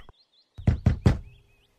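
Three firm knocks on a wooden front door in quick, even succession, loud, with a faint high chirping in the background before and after. In a story, Tok Tokkie knocks three times on the door of the chameleon's treehouse in a thorn tree.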